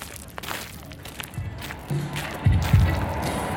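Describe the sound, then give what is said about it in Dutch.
Dense outdoor crowd murmur at the Lowlands music festival, said to draw about 55,000 people, with footsteps and movement as people walk from the Heineken stage past the Lima stage, and deep, booming bass thuds from music swelling toward the end. “Nou, we lopen hier eh, op Lowlands. We zijn net aangekomen.”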